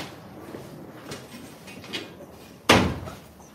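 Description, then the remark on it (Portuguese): A chair being picked up and moved to sit beside the speaker: a few faint knocks and rustles, then one sharp wooden thump as it is set down, with a short fading tail. “Talvez pegar uma cadeira dessa, colocar aqui do meu lado.”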